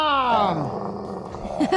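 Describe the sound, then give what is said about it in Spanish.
A loud snarling growl from an angry rabid dog, starting high and sliding downward into a rough rumble, with a short grunting burst at the end. “Vendo perro con rabia.”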